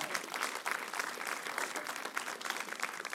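Steady applause from an audience, a dense patter of many hands clapping at an even, sustained loudness throughout, with no voices standing out above it.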